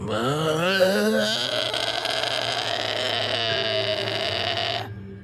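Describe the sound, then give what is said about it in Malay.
A voice imitates an older sister's long, guttural groan, a loud, rough, wavering drone held for about five seconds before it cuts off abruptly. “bila sapu je kakak akan berhenti berhenti dan boleh dengar kakak ni dah tengah mengerang macam”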